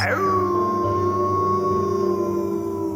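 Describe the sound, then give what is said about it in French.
A wolf in the forest of Saint-Quirin lets out one long, loud howl at nightfall that swoops up at the start, then holds a steady, slightly falling pitch for several seconds with no voices over it. “Un loup avait emménagé dans la forêt de saint quirin Et ça faisait peur, très peur.”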